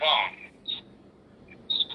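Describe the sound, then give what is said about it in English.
A mobile phone gives off a few short, high electronic beeps at irregular intervals, following a brief louder burst at the start, as if its buttons are being pressed at random. “Dude, stop playing with your phone.”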